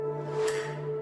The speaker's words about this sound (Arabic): هذا صوت لوجو قناة ديزني التي نتحدث عنها، وهي خدمة بث فيديو أمريكية مأجورة حيث يمكن للمستخدمين مشاهدة الأفلام والعروض دون اتصال بالإنترنت طالما اشتركوا في الخدمة، تشمل مئات الأفلام والبرامج التلفزيونية التي أنتجتها ديزني على مدار 90 عاماً